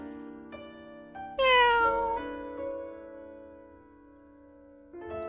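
A cat lets out one loud, drawn-out meow that slides downward in pitch, heard over a soft, steady tonal background that continues after it fades.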